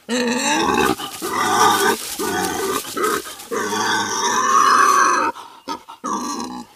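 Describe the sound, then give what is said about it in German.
A large herd of wild boars grunt and snort continuously around a parked van, several voices overlapping in dense, rough bursts, with a few brief pauses between loud stretches and no one speaking. “Eine große Herde Wildschweine.”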